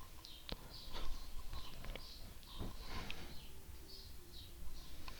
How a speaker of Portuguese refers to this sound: Olha só. Passarinho cantando. Passarinho tá feliz.